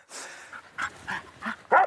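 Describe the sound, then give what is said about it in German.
A female mountain rescue search dog, fitted with a GPS transmitter and being prepared for a search, gives a series of about four short, excited barks and yips at a quick, uneven pace, the last one the loudest, after a brief breathy whine at the start. “bereitet der zweite Bergretter Achim Tegethoff seine Hündin Sira auf eine Suche vor”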